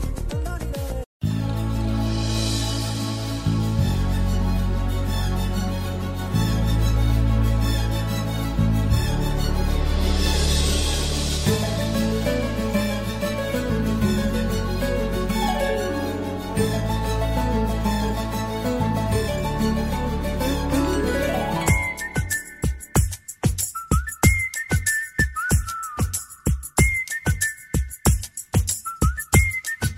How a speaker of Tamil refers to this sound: இப்போ ஒரு அழகான பாடல் வருது கேட்டு ரசிச்சுட்டு வாங்க நம்ம தொடர்ந்து பேசலாம்